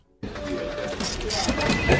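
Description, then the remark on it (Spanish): A printer starts up abruptly after a moment of silence and runs steadily, printing pages with a fairly loud whirring and clattering of paper feeding through the mechanism. “Impresora de hojas borrador, la novedad de la que todos están hablando.”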